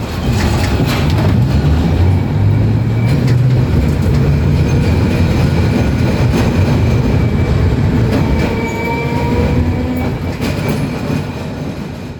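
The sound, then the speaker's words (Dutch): A tram in Milan, boarded at Piazza Cordusio and passing Castello Sforzesco and Parco Sempione, rolls steadily along city rails, its low, heavy rumble loud throughout, with faint metallic whines and clatter over the tracks and no voices. “Loop dan door naar Piazza Cordusio en stap daar weer op de tram.”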